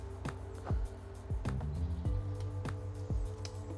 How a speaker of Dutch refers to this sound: Oh, die maakt dat geluid dus. Oh, we zijn erachter. Het is dus een grote specht die dat geluid maakt.